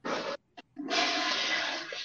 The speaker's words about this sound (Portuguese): descarga, mano. Gente, fecha a porta aí.